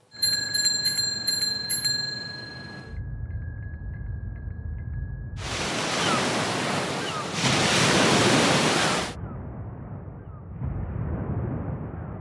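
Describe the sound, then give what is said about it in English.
Bright bell chimes give way to a dull, muffled low rumble, then loud roaring wind-like surf cuts to a darker, duller version, as if heard through thick padding; a NASA example of how sounds would be quieter on Mars, losing high-pitched frequencies. “In general, it's going to be a lot quieter, and you're going to lose a lot of the high-pitched frequencies.”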